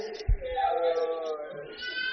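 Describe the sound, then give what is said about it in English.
A goat gives one long, wavering bleat lasting about two seconds, fairly loud, with a brief low thump near the start. “The goat, the bladder is not working. There's wee wee inside the goat.”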